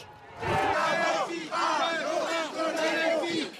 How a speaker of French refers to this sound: Une arrivée sous les huées